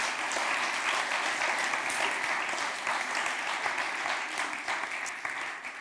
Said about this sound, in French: Moi, je propose qu'on l'applaudisse. 18 ans, c'est pas rien.